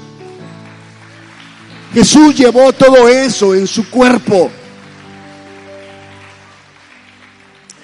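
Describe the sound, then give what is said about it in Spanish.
Steady crowd applause given in glory to God, a dense, even patter of many hands clapping, runs through the whole stretch, with a man's voice speaking loudly over it for a couple of seconds in the middle. “¿No das gloria a Dios por ello con un fuerte aplauso?”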